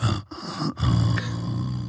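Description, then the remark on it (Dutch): A voice imitates the dragon Vegar snoring behind a dune, with deep, rasping growls in three close bursts separated by brief pauses. It is loud, with no other talking. “hoor je iets, iets ademen of bewegen.”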